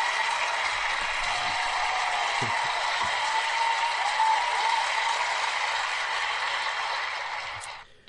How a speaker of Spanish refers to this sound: Así que los que habéis acertado, enhorabuena. Bueno, entonces pongo unos aplausos para los que han acertado, pero yo quería poner... Os lo merecéis, chavales, os lo merecéis.